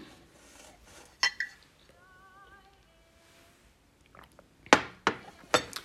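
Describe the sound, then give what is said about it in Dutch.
Someone takes a sip of a drink, with a cup or glass clinking against a hard surface a few times before and after a quiet swallow. “Even een slokje nemen hoor.”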